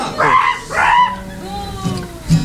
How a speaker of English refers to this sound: and if you want, you can just boo us.